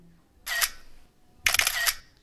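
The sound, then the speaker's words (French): Two crisp phone camera shutter clicks as emails are photographed with a phone, each a short bright burst with a brief mechanical rattle, separated by about a second of quiet; no voices. “Choqué et fébrile, tu prends en photo les mails sur ton téléphone avant de te replacer devant le bureau, juste avant que ton patron entre, tout sourire.”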